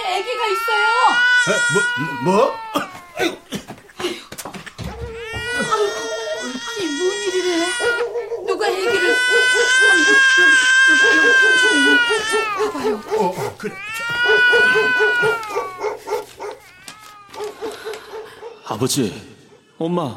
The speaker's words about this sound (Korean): 나가봐. 애기 울음소리 같은데. 아니이 동네 우리 애가 없는데.